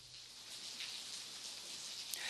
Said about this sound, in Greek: Βρέχει αυτή την ώρα, όπω βρέχει καθ' όλη τη διάρκεια τη μέρα.